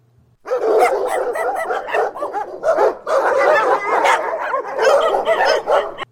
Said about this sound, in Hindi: कब्रिस्तान के वहां अजीब सा माहौल बना हुआ था बीच बीच में कुत्ते बहुत ही डरावने आवाज से भौंक रहे थे